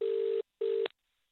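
A telephone ringing tone over the line, two short buzzing rings in quick succession, cut off by a sharp click as the call is picked up. No one speaks.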